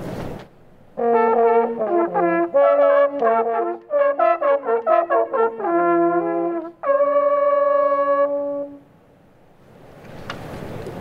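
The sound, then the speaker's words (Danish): Hunting horns blow the 'Jakob Øl' call in a hunting lodge before the hunters set off: a short, lively fanfare of quick repeated notes that ends on a long sustained chord. The sound is loud, with no one talking. “Og vi blæser Jakob Øl nu, og så er vi klar.”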